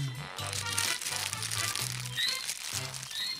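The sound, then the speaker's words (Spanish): Paper being crumpled in a studio to start a small fire, a dense run of crackling, crinkling rustles that continues steadily for a few seconds with brief pauses between squeezes, loud with no talking. “Eh, yo voy a prender un fueguito acá en el estudio, tengo unos papeles, voy a...”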